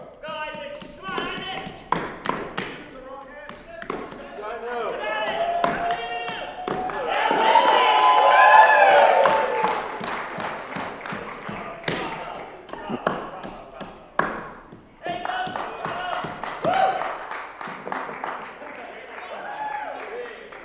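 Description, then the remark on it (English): Rapid, uneven blows from a right-handed hammer strike softwood logs cut from the same tree again and again, sharp, during a timed race, while voices and crowd noise swell in the background, loudest midway through. “It's a right handed hammer.”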